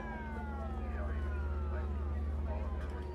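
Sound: police car siren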